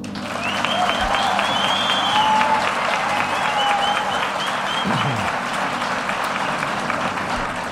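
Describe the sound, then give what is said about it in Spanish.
Steady, dense applause from an audience welcoming ESA astronaut Pedro Duque, many hands clapping at once in a loud sustained wash that holds its level throughout, with a few brief whistles and cheers on top. “Quiero que le deis un fuerte aplauso a quien será nuestro comandante, el astronauta de la ESA, Pedro Duque.”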